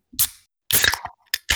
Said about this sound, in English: So as Gallows himself would say, crack a beer, take your pants off.